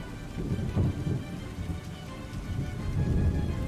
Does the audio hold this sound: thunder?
yes